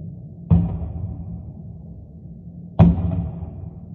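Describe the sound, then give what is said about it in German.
Two heavy booms about two seconds apart, each striking sharply and rolling off into a low, lingering rumble: air defense explosions over Kyiv, Ukraine, around 3 a.m. during heavy air attacks, with no voices. “wurden wir hier in Kiew gegen 3 Uhr morgens, also Ortszeit, geweckt durch eine Reihe sehr, sehr lauter Explosionen der Luftverteidigung.”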